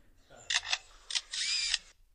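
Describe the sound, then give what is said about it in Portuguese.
A lyrebird mimics the shutter sounds of two cameras, a digital camera and a camera with a film-winding motor: a few sharp clicks, then a brief whirring like the film motor and a final click, with no talking. “O pássaro imitando o som do obturador de uma câmera fotográfica.”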